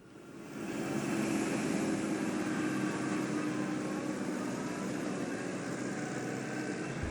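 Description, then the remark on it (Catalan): A train arrives in the village of Wengen with a steady mechanical rumble and hiss that swells up within the first second and holds loud and constant. A faint hum of electric cars sits underneath, and no one speaks. “aquí tu pots sentir el tren que arriba i, si t'hi fixes bé, els cotxes elèctrics.”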